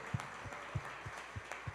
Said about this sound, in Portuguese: Aplauda o Rei da Glória, Jesus.